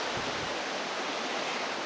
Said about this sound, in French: Ok. Donc là, je longe le ruisseau.